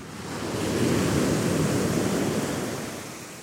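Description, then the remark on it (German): Steady seaside ambience at a harbour basin, sheltered from the wind behind one of the dunes, with a broad wash of waves swelling in and easing off over a few seconds, soft wind noise mixed in and no voices. “Vom Wind geschützt startet unser Gespräch hinter einer der Dünen am Hafenbecken mit einer ganz grundsätzlichen Frage.”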